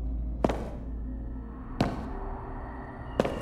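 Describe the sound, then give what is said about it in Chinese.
Three slow, heavy footsteps of a figure in a black robe coming out of the darkness behind an anteater in a story land at an even, deliberate pace, each a sharp thud with a lingering ring, over a low, steady background drone that gives them an eerie feel. “就在这时，一阵诡异的脚步声在他的身后响起。”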